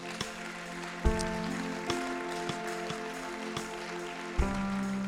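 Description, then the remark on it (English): An audience at a morning church service at Red Rocks Brussels applauds for God after the message, in a steady, dense wash of clapping that lasts the whole stretch, with sustained musical chords humming underneath and a couple of low thuds. “Just give God a clap in for that this morning.”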